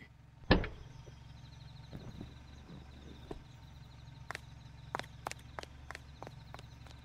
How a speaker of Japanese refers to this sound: 女は車から降りて家へと入っていった